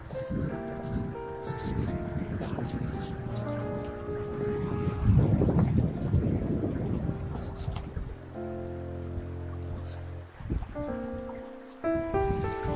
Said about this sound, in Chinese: 大家可以听到潺潺的流水声，对，不是潺潺，是很大的水声，对。